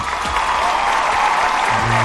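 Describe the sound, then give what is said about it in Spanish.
Steady applause from a crowd welcoming a guest, a dense continuous patter of clapping that stays loud for the whole stretch, with a faint low voice murmuring underneath toward the end. “un aplauso para él”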